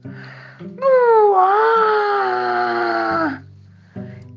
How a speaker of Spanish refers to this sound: Un lamento desgarrador recorría toda la planta de limón.